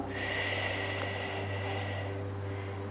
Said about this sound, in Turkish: Kocaman büyük bir nefes alıyoruz.